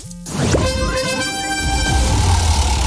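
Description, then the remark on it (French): A loud, sustained horn blast with a bright, brassy tone rings out almost alone, following a brief low tone at the start: the alert signal of a radio contest on RMC. “Dès que vous entendez cette alerte, vous avez 5 minutes pour prendre votre téléphone et envoyer le mot roue par SMS”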